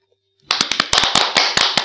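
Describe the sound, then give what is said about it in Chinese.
After a brief silence, applause for two children who have just read poems and idioms in their first recording breaks out abruptly: a dense, loud patter of many hands clapping, with sharp individual claps standing out, continuing steadily to the end with no talking. “我们给他们一点掌声，好不好？”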